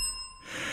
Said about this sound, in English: Nikki will ding her bell.